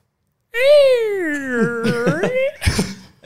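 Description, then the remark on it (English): A voice imitates a door creaking open: a long, drawn-out whine that slides downward in pitch, wavers, and ends in a rough, breathy rasp, fairly loud. “I, I open Ben's door and it sounds like this.”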